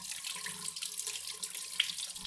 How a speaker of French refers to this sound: Tout d'abord, on va commencer par prendre nos oranges et les rincer très bien à l'eau claire.